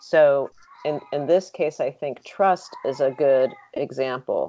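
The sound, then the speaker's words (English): A cat meows once or twice, a short harmonic animal cry mixed in with a man's steady speech, about as loud as the voice. “So uh, if, sorry, that's my cat.”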